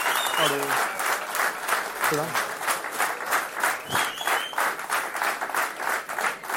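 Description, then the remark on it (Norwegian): Sustained, loud audience applause thanking the guests at the close of an evening event, with dense clapping throughout, joined by a few brief voices calling out or cheering over it. “Stor applaus.”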